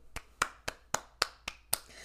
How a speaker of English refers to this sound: so, at that point, at that point, guys, um, I stopped going on Craigslist. Let's clap for me.